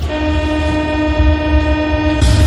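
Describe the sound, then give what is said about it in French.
A Paris metro train, with a loud sustained tonal whine layered over a deep rumble, steady throughout and swelling with a burst of hiss near the end. No one speaks. “On débute notre éphémérie dans le métro parisien.”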